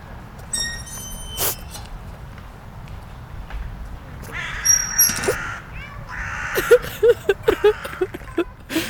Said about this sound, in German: jetzt mal nicht Tauben, sondern Krähen. Es macht es ja. einfach gerade so ein bisschen dramatischer. Traurig.